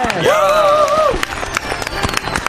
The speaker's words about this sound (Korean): 아, 박수! 아, 박수!